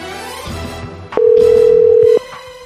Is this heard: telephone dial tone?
yes